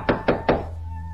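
Three quick, dull knocks on a door in a steady rhythm, each a firm thud, followed by a faint low hum with no one speaking.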